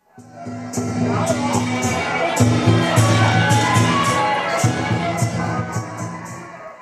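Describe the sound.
A large crowd cheers and shouts continuously, a dense wash of voices with scattered whoops, while sharp crackling bursts of a fireworks display pop repeatedly overhead, at the 2019 Taiwan Lantern Festival at Dapeng Bay, Pingtung, Taiwan, on the evening of the Lantern Festival.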